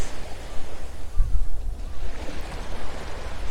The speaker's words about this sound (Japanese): 3分間だけ波音を流そうと思います